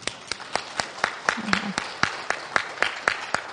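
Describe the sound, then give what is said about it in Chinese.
Audience applause in a steady, even rhythm: about fourteen sharp, crisp claps spaced roughly a quarter second apart, with a brief low hum of a voice partway through. “嗯，不是给我鼓掌，是给你的肝鼓掌。”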